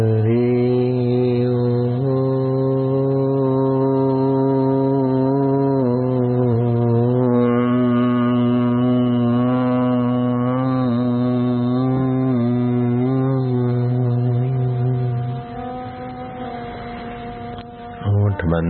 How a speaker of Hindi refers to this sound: जगा रखे फिर ओमकार का गुंजन